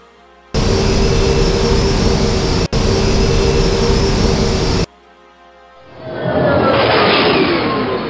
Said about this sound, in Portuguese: tu sobe na nave, liga os motores, aciona os controles